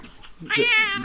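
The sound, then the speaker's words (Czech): A single cat named Alžběta, about 16 years old, meows clearly and fairly loudly, a drawn-out tonal cry rising after a brief quiet moment, with faint background noise at the start. “to je kočka Alžběta a ta tady je snad 16 let”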